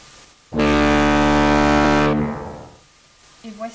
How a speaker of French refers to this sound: L'oreille perçoit des sons dont la fréquence varie entre 16 Hertz et 16 000 Hertz, 16 Hertz étant le plus grave et 16 000 Hertz le plus aigu. Par exemple, voici un son grave.